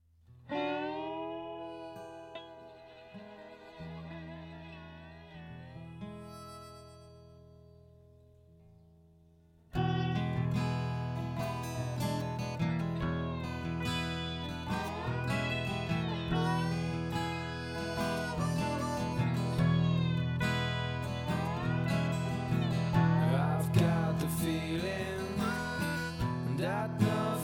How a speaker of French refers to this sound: Et on va se quitter en musique en écoutant … de …. Euh, qui est en licence évidemment euh, libre CC by NC et qui a été déniché sur le site Au bout du fil